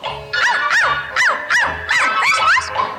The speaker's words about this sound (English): And the dog said,